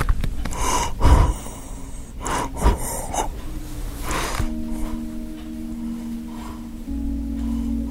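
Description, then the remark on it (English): Labored, gasping breaths of a dying 94-year-old man with end-stage congestive heart failure come in a few irregular heavy pulls, at his bedside in a nursing home in Cleveland, Ohio, just after midnight, while a steady low mechanical hum fills the background through the second half. “You can probably hear him breathing here in the background.”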